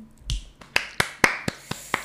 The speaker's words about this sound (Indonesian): tepuk tangan